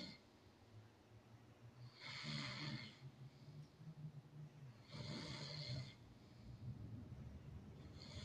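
person snoring

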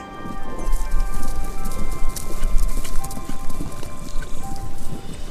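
horse hooves clip-clopping

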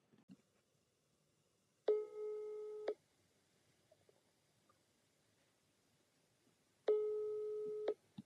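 telephone call ringing tone

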